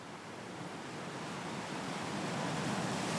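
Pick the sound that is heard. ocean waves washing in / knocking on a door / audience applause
ocean waves washing in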